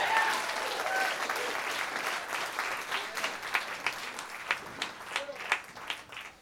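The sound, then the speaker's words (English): An audience applauds to welcome a performer, a dense, steady wash of clapping that gradually thins out until only a few scattered individual claps remain at the end. “Guys, give it up”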